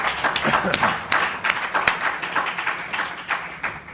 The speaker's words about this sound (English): Uh, has put up a lot with me, and just that alone, he deserves a round of applause.